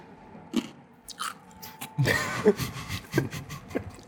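Someone chews ice with a run of irregular, crisp crunches and wet mouth clicks. A louder flurry of crunching comes midway, with no talking over it.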